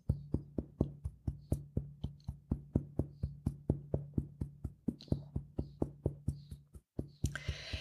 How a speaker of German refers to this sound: Natürlich kannst du jetzt schon am Anfang etwas deinen Thymus klopfen. Ich klopfe jetzt mit dir mit und wir klopfen zuerst einmal deinen Thymus wach, welcher übrigens als Virenpolizei bekannt ist.